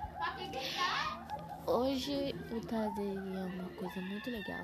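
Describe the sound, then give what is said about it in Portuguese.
A television that siblings are watching in a living room plays in the background, with bright, cartoonish crowing and clucking sounds, while a young voice talks over it. “Ah, desculpe o barulho do fundos, é que eu tô gravando na minha sala, e meus irmãos estão vendo televisão.”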